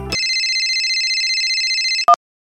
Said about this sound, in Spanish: Ahora suena el celular.